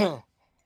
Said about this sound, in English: Was that a sneeze, a yawn, or a yawn? Yawn. It was a cough and a yawn at the same time.